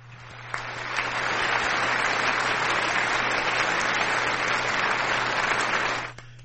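A burst of crowd applause, played as a sound effect, swells in quickly and holds steady at a full, dense clatter for about five seconds before cutting off abruptly, with a low electrical hum underneath.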